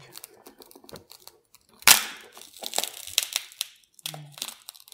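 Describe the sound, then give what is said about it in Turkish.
Cracking and crunching as hardened sand packed inside an object is broken apart and pried out, with scattered sharp snaps, a louder burst near the middle, and brief scraping clicks throughout. “Baya kırılarak çıkacak öyle gözüküyor.”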